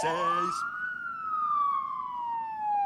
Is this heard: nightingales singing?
no